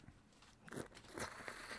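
Soft, wet chewing of thick, farmed mozuku seaweed, with a few irregular squelchy bites and crunches spread over a couple of seconds. The sounds are faint and there is no talking.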